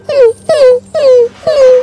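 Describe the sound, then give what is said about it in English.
Four short, high whines in a steady rhythm, each a thin descending cry, made by a human voice imitating a whimpering Cerberus puppy, fairly loud. “It looks up at you with the biggest puppy dog eyes and it starts whining.”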